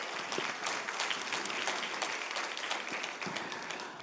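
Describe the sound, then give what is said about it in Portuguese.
A church audience applauds steadily for those married to Jesus, many hands clapping in a dense, continuous wash of sharp claps at an even level for several seconds, with no one speaking over it. “Para todos vocês casados com Jesus, dê uma forte salva de palmas.”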